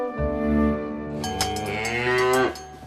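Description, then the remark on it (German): A single long, loud cow moo, rising and then sliding down in pitch over about two and a half seconds, with no talking. “Mit einer Kuh.”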